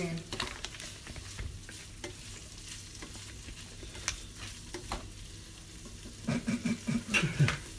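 Bread sizzles and fries in butter in a pan as the heat is turned up a little, a steady crackling hiss with scattered sharp pops, and a burst of scraping and tapping near the end as it is moved about.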